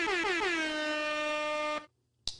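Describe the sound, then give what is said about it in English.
A loud, blaring air horn sounds one long blast of nearly two seconds, cuts off, then gives a brief second burst. No one speaks. “air horns actually.”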